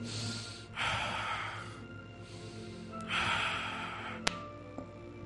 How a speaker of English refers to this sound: Keep breathing in and out. Something good is happening here. Keep breathing, don't stop. If I were you, I would not stop. Until I tell you to stop, keep breathing in and out.